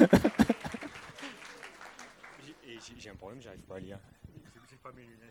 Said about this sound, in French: On applaudit l'heureux candidat.